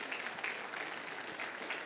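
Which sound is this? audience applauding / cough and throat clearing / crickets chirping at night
audience applauding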